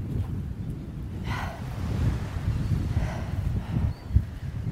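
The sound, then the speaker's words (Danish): Steady wind buffets the microphone with a low, gusty rumble for the whole stretch, rising and falling slightly, outdoors by a reef where people are going fishing, with two faint high-pitched calls briefly audible. “Og måske ikke så meget blæs.”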